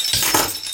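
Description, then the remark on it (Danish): Cold beer bottles being opened: two sharp pops with a short fizzy hiss, and a faint glassy clink. No voices, and it's over in under a second. “Vi åbner en kold her.”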